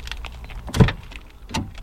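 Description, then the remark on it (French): A car trunk shuts outdoors with a solid, low thud, followed moments later by a lighter second clunk, against a quiet ambient background. “Alors, son seul fermeture coffre extérieur.”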